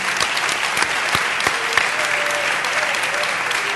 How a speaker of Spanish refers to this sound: un aplauso.